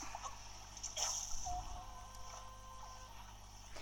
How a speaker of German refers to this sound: Nein, die Waffen sind ins Wasser gefallen.